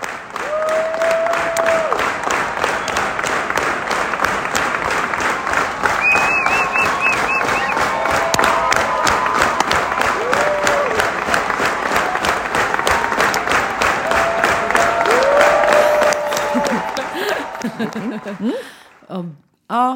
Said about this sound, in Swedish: Ska vi höra på applåderna från konserten eller?